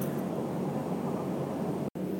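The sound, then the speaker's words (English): A steady, loud airplane cabin roar of turboprop engine noise, a dense low rumble with hiss on top, droning without pause except for a split-second dropout near the end. “Recording on a Noisy Turboprop Plane”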